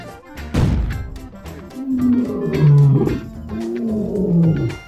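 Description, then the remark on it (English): A loud lion roar bursts in with a sharp onset, then rumbles on in deep, growling waves for several seconds before trailing off. “he changes into a lion.”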